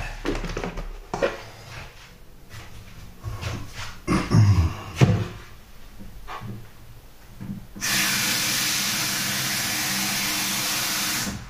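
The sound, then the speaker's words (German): Coffee being prepared: scattered clicks and clatters for several seconds, then a loud, steady steam hiss kicks in and keeps going without a break to the end. No one speaks. “Ich werde mal alles vorbereiten für den Kaffee.”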